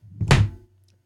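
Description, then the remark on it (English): A single dull thunk of a phone dropping onto a hard surface, fairly loud, with a brief low rumble before the impact and quiet afterward. “What was that? Oh, that was my phone.”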